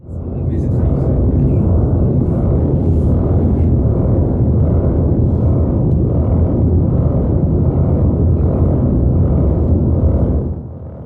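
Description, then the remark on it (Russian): Music generated from the speaker's own muscle signals and movements, played through a loudspeaker: a loud, dense, rumbling low drone with a churning, noisy texture that holds steady for about ten seconds before fading slightly at the end. “И я слышу, получается, собственноручно сделанную музыку.”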